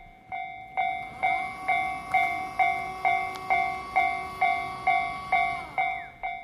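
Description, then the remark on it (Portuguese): A level crossing's warning bell dings in a steady, rapid rhythm, about a dozen clear strikes, over a low rumbling background as a train passes through the crossing with its barriers. No one speaks. “Como nos subúrbios de Tóquio, as passagens de nível com cancelas para evitar acidentes são comuns nessa parte da linha. O trem passa, atravessa a cancela”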